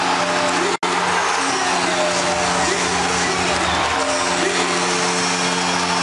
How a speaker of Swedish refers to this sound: Och stället går bananas! Fullständigt! Gällereven Center jublar!